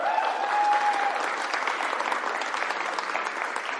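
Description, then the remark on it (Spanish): A crowd claps steadily and loudly for several seconds in applause to the Lord, a dense wash of many hands with a faint sustained tone early on and no speech over it. “Ahora sí aplaude al Señor.”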